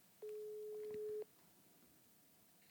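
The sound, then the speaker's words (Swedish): A single steady telephone ringing tone of an outgoing phone call sounds for about a second, then the line goes quiet, with a brief faint high blip near the end. No one speaks. “jag kan testa att ringa Theodor”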